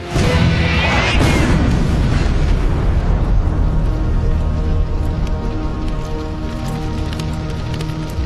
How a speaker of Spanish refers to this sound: Derribó a los tres tanques de cabecera con tres disparos.